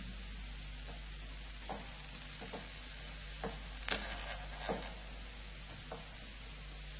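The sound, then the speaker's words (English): Slow, muffled footsteps of a man climbing stairs up toward a room, about half a dozen soft thuds spaced unevenly and fairly faint, over a low steady hum with no one talking. “Boys, oh, listen, the stairs. Yes, he's coming up.”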